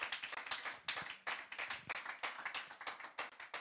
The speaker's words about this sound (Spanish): Alguien le da un aplauso fuerte al Señor. Vamos, give the Lord a hand clap.